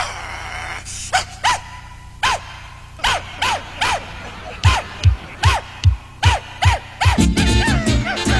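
A playful children's song intro about a puppy, built from a string of repeated dog barks and yips in a steady rhythm, layered over a low bouncing beat that grows fuller and busier near the end.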